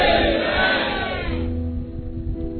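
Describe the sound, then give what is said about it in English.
A large crowd at a Christian worship service shouts together in one loud, sustained collective amen at the preacher's call, which fades into a lingering murmur of voices and reverberation. “Shout a dangerous amen. Let me hear you.”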